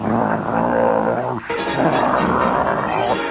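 Big green army trucks, prime movers loaded with equipment, radar and mortar gear, drive past in a parade. Their heavy Leroy diesel engines give a loud, continuous low growl that drops out briefly once before surging back.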